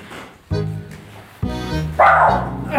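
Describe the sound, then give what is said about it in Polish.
A dog named Karmelet barks three times, loud, sharp woofs spaced about half a second to a second apart, with no talking in between. “O, Karmelet ma jakieś sugestie.”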